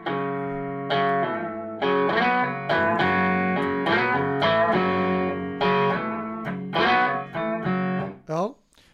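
A distorted blues rock guitar riff plays in short, chunky repeated phrases with a steady stop-start rhythm, thick and loud, ending with a sliding bend.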